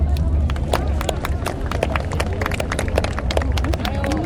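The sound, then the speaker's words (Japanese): Steady, dense clapping from an audience welcoming a guest artist fills the whole stretch at an even loudness, a continuous patter of many hands with a few voices faintly mixed in underneath. “ここである僕の奇策を今日は連れてきました、えー、皆さん大きな拍手でお迎えください”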